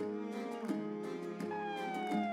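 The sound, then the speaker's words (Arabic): A police car siren wails loudly as the police arrive, its tone cycling and sliding in pitch across a few quick repetitions, with no voices. “عندما وصلت الشرطة كنت بالطبع أحاول كسر باب الخنزير”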